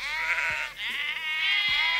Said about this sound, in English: That's what that is. Bunch of little sheep running around here.